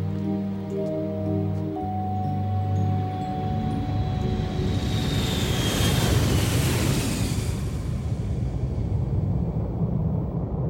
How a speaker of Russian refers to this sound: Помигивая габаритными огнями на крыльях и хвосте, самолет летит над облаками.